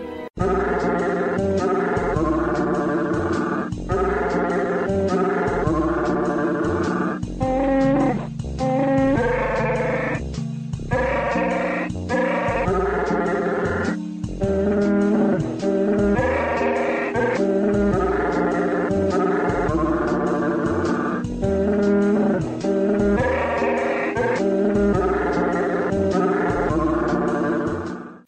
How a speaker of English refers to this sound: we would like to present that beautiful holiday favorite, Silent Night, sung by that wonderful soprano, Chewbacca